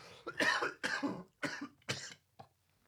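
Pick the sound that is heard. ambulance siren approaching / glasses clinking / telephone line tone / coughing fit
coughing fit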